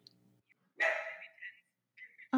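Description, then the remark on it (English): A dog named Henry, the speaker's dog, lets out a loud bark that trails off, followed a moment later by a shorter, softer bark, with brief quiet between them. “Oh, hello, dog.”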